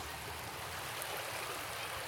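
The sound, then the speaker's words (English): Steady rushing of a stream at a campground, water running continuously with a bright, hissy wash and no breaks, no voices present. “All right, so hopefully you found that a little interesting, our uh, chat while we were on site at the campground, sitting by a stream, lots of water running.”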